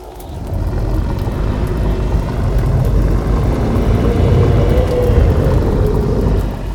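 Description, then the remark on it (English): A deep, rumbling growl swells quickly into a loud, sustained monstrous roar that holds steady for several seconds before cutting off, with no voices. “Then there was a low growl, followed by an unnerving roar.”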